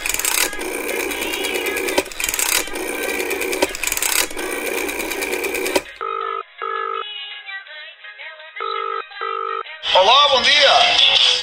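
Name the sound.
telephone dialing and ringing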